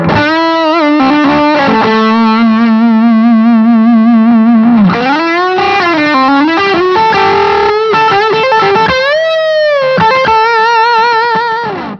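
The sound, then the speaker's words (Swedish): A heavily fuzzed electric guitar, a One Control Rocket Grey Fuzz pedal stacked into a Marigold pedal, plays sustained, saturated notes with bends and slides, thick buzzy overtones and a steady loud level, with no talking over it. “Eh, för att det ibland kan vara skönt att stacka en fuzz in i, en, Precis. in i något strömstyre.”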